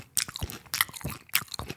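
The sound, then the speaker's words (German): Crisp crunching and chewing as a man eats his meal, with several sharp bites spaced roughly half a second apart, each followed by softer wet munching and smacking sounds. “Man munching, munching my, munching my meal.”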